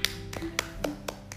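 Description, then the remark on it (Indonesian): Six or so sharp hand claps in a quick, steady rhythm, fairly soft, with no voices over them. “mantap ini suara tepuk tangan ya”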